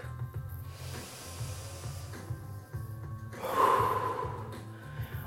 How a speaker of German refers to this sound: Nehme nochmal einen tiefen Atemzug.